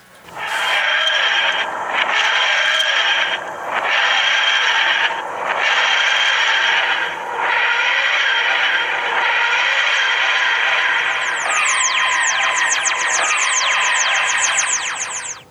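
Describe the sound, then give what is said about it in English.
A loud time vortex sound effect: a sustained, grinding whoosh that pulses in rhythmic swells, then breaks into a flurry of rapid rising sweeps near the end. No one speaks. “This Atari 2600 podcast is once again leaping into the time vortex to propel ourselves into the future all the way to the Atari 7800.”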